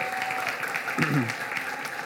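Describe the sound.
An audience claps steadily in a dense, even wash of applause for about two seconds, with a brief voice rising over it midway.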